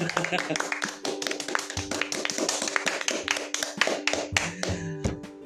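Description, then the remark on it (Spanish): Quick, steady hand clapping from a small group, fairly loud, with a voice laughing or calling out underneath the applause. The group applauds the speaker at the speaker's own request. “Un aplauso para mí, por favor.”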